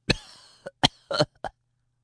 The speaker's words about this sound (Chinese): 可惜没念多久，他就咳嗽连连，气喘吁吁。